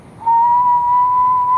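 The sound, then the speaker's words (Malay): Someone imitates a whistling sound with one steady, sustained mid-pitched whistle that rises slightly toward the end. The whistle is loud and clear, and no one speaks. “Guys dengar tak ada bunyi bersiul Dia bunyi bunyi macam ni”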